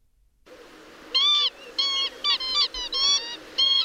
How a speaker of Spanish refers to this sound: Vamos a hablar hoy de... Bueno, de una, una ave muy común, ave, eh, la ave fría, ah, ave fría. Mira, ah, ahí está, ahí está el viene. Ahí viene, ahí viene.